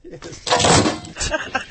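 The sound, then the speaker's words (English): A cat trying to crawl into a cardboard box knocks things over around it and scares herself out of the box: a quick run of loud clattering thumps and scrapes, with a muffled voice faintly underneath. “watching my cat trying to crawl into a box. she's knocking crap everywhere.”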